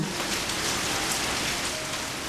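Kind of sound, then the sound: nature, rain shower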